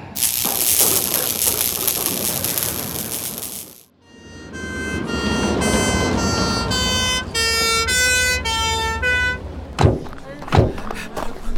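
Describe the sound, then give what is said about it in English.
A loud ambulance siren alternates between high and low tones for several seconds as the ambulance arrives, following a burst of rushing noise and ending with a few sharp knocks. “Out of the way, the ambulance is here.”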